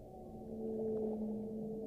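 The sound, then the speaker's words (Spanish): Whale song: low, drawn-out tonal moans that hold steady and swell slightly, sitting over a soft, muffled underwater wash, with no voices. “Bueno, nos sumergimos con esta música, esos cantos de ballenas, ese sonido de agua.”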